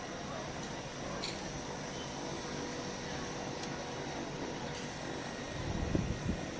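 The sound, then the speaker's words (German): A helicopter's steady engine drone fills the background as it flies away, a broad rumble that holds at an even level, with a brief low thud near the end. “Ich glaube, ich warte noch, bis der Helikopter wieder abfliegt.”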